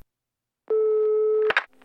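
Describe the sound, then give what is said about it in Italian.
A steady telephone line tone hums for just under a second as a call is placed in New York, then cuts off with a sharp click and a brief clatter, as if the receiver is picked up; no one speaks. “E gli parla, anzi, gli telefona.”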